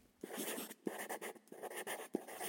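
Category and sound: tool, pencil scratching on paper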